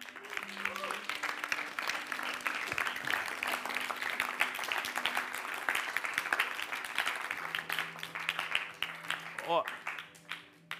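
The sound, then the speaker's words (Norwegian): A crowd claps steadily for several seconds in applause for those who accepted Jesus that day, a dense, continuous applause with a few faint tonal sounds and voices mixed underneath, tapering slightly near the end. “Du, Kan vi ikke gi en applaus til de som tok imot Jesus i dag?”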